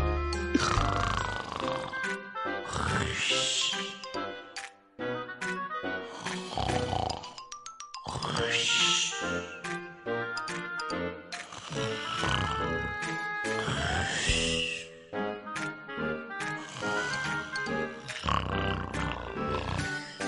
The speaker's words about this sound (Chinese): 打呼噜也是一种幸福？